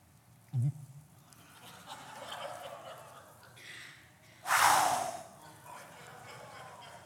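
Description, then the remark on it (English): A voice imitates a burp: a short, low guttural croak, then a few seconds later a loud, breathy blast of air, as if someone is blowing right into the listener's face. “Have you ever had anybody burp and blow at you?”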